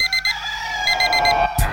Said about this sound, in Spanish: Suena el despertador.